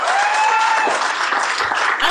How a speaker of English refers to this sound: I'm sorry. Why did they clap?